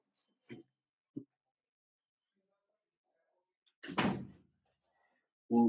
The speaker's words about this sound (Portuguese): Hum, deixa eu só fechar uma porta.